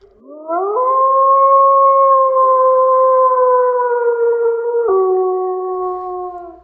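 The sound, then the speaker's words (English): The speaker's pet dog lets out one long, loud howl that rises at the start, holds steady for several seconds, dips briefly near the end, then carries on. No one speaks. “Listeners, you might hear a dog barking in the background.”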